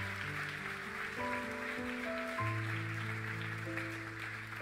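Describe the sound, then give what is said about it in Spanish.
An audience at a church service applauds "the King" steadily in a dense, continuous wash of clapping, layered with sustained organ-like keyboard chords that shift a few times. No one speaks. “Vamos, alguien puede darle un fuerte aplauso al rey.”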